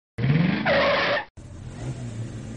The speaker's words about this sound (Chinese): 很快，一辆出租车停了下来